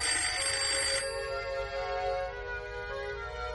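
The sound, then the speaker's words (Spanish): A telephone rings with a bright, brassy tone, loudest in the first second and then lingering as a steady ringing hum. No one speaks. “De pronto sonó el teléfono.”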